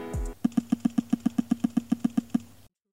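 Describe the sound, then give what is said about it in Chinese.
The Z-axis vibration motor of an A42 phone buzzes in a rapid, steady series of about fourteen short, evenly spaced low pulses, mimicking rifle fire in the game Peacekeeper Elite (和平精英), preceded by a brief low rumble and ending abruptly. “比如说，在和平精英的时候呢，可以根据不同的枪械类型来产生不同震感。步枪是这样式儿的”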